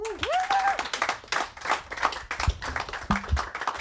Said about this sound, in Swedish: Tack så mycket till er som har varit med här. Eh, jag tycker att vi ger er en stor applåd till, eh, till panelen.